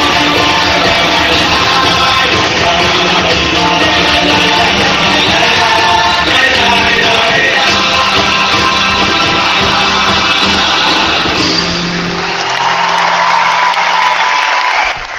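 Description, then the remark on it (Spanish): A large crowd of Argentines in the Teatro Gran Rivadavia roars and cheers continuously, with rhythmic chanting of "laila, laila" rising through the dense, loud ovation before it eases slightly near the end. “Ya de la ovación nuevamente lo llueve todavía”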